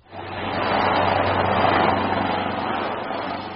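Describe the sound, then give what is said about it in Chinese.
An Italian AgustaWestland helicopter's engine roars steadily as it lifts off from the Houtan heliport in Shanghai on a sightseeing flight, a loud, dense, rushing drone with a low humming undertone that swells in quickly and holds for a few seconds without any voices. “伴随着发动机的轰鸣，有“空中法拉利”之称的意大利阿普斯特维斯特兰直升机从后滩缓缓起飞。”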